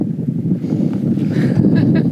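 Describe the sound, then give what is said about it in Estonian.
Steady, heavy wind buffets an outdoor microphone, producing a loud, continuous low rumble with uneven gusty surges and faint scattered higher noise throughout. “korralduslikult ma ütlen nii palju, et, et meil on äh, palju tuult ja neli esinejat ja”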